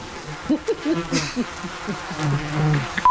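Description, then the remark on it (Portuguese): A bumblebee buzzes, a low droning hum that wavers in pitch and loudness for a few seconds, steadying into a continuous drone toward the end. “É um, é um zunido de zangão, porque elas estão tomadas dessa amargura.”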